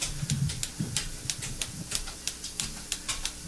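A rapid, uneven series of sharp mechanical clicks and taps as a band adjusts mic stands and clicks an effects pedal between songs, over faint low rumbling handling noise.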